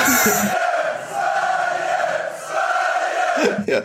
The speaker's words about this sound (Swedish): Nu vill jag höra klacken igen.